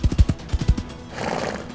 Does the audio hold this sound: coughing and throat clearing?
no